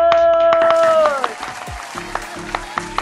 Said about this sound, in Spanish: Un aplauso para Juan Carlos.